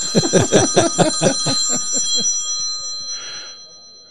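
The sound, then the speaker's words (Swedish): A telephone bell rings in a fast, rattling burst of around a dozen strikes lasting two seconds, then its bright metallic tone lingers and fades. No one speaks. “Det ringer, skynda dig att svara.”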